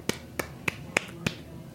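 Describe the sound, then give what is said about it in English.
Five crisp hand claps in a steady, evenly spaced rhythm, imitating the pat of tortilla dough being slapped between palms, with nothing else but a quiet background. “odd intermittent clapping, and it was the older women getting together making tortillas and slapping them together against their hands before they put them on the grill.”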